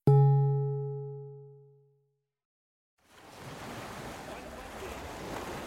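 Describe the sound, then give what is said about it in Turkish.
A single bright chime rings out and fades, then after a short silence a steady wash of sea waves rolls in on the shore of a seaside town, continuous. “Hep beraber deniz kenarına iniyorlar.”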